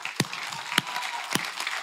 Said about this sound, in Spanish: Gloria a Dios, ¿por qué no le damos un aplauso a Dios?